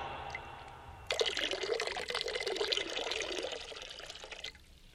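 water being poured

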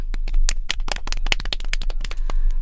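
audience applause

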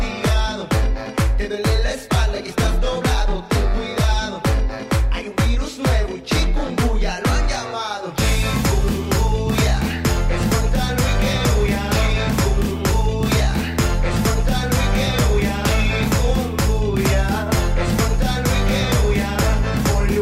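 rap song

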